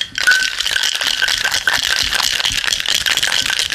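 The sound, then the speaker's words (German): A glass-and-metal cocktail shaker is shaken as hard and fast as possible, ice rattling and clattering continuously against glass and metal for several seconds, loud, with no talking. “So, und dann nimmst du die Glasseite zu dir. Mhm und schüttelst so hart wie du kannst hin und her.”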